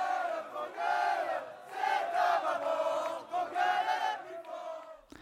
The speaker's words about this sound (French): Et là, c'est-à-dire au milieu de la place d'Italie, la manifestation se termine sur le répertoire classique des luttes et sur les champs des Gilets jaunes dans une ambiance bon enfant.